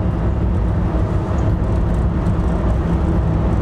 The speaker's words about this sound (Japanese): トンネルの中に入りましたえー、今僕は多分飯塚の方に向かって走っていってるんですけど飯塚からこっちに向かってる車の量は半端なく多いですね